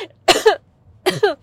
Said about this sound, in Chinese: 啊，咳嗽，因为被口水呛到